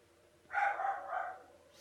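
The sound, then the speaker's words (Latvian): A dog lets out one drawn-out bark that wavers briefly in the middle, clear against a quiet background, with no talking. “Sunis.”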